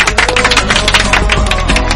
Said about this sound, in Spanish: ¿Te parece que te demos un aplauso? Todo el equipo, vamos a por ti.